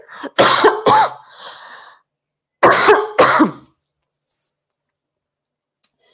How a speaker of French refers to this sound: Excusez-moi, je vais tousser.